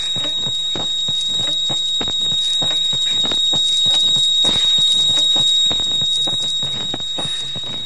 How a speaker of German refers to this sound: Also was wir da in diesen Sekunden gerade hören, sind verschiedene Quellen auf Vinylschallplatte. Zum Beispiel das …, …, ich glaube Mechanik, …